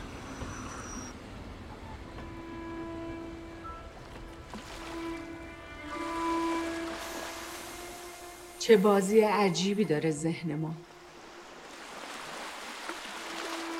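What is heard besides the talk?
sea waves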